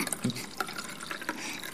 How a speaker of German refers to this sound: Ähm, ich, ich mache dir noch so einen ganz höflichen Schluck. Ich habe gelernt, man muss immer erst den anderen einschenken, bevor man so. sich selbst einschenkt.